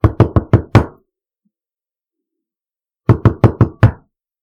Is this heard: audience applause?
no